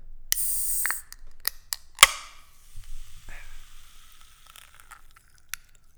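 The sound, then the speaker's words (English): A fizzy drink is opened: a sharp hiss of released gas and a few clicks, then a crisp pop followed by several seconds of soft, crackling fizz fading away. No one speaks. “So, we're going to kick it off like we always do with a bubbly opening.”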